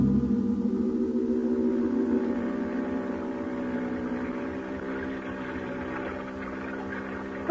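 A motorboat's outboard engine drones steadily and close by, a continuous buzzing hum with low rumble that holds its pitch, fading slightly toward the end. No one speaks.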